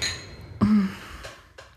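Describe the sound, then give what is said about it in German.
Glasses clink together in a brief toast, a sharp bright tap followed by a couple of lighter clinks, with no one speaking. “Cheers.”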